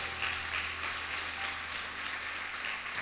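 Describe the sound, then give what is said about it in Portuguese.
An audience applauding the Lord steadily, a dense wash of many hands clapping at once, sustained and fairly loud throughout, with a low hum underneath and no voices standing out. “Aplauda ao Senhor se você crê.”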